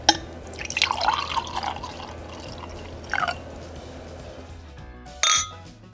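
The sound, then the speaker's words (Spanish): A semi-sweet wine trickles and splashes into a glass over about a second, followed by a few brief bright clinks of glass, then a sharper final clink; no one speaks. “Te recomiendo maridarlo con ensalada caprese, comida picante, cerdo asado, carnes tiernas o simplemente solo, como estoy haciendo yo en este momento.”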